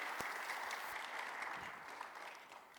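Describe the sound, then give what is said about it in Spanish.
A church audience claps for the viewers watching online, a steady, dense, even wash of many hands applauding for a few seconds with no voices over it. “Iglesia, yo creo que debemos dar otro aplauso para ellos.”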